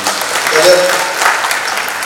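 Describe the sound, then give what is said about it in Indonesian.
A church audience claps for God together in a steady, dense burst of applause, a broad crackling wash of many hands that holds at an even loudness throughout with no voices standing out. “Yang mau berikan tepuk tangan buat Tuhan.”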